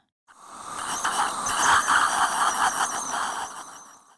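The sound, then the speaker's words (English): A dental polisher, used by a dentist to polish teeth after cleaning, runs steadily for about four seconds, a continuous high-pitched whirring whine with a slightly wavering tone and no voices. “A polisher.”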